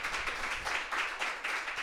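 Steady applause from an audience for an invited guest, a dense wash of many hands clapping at once with slight swells in intensity, sustained throughout without any voices standing out.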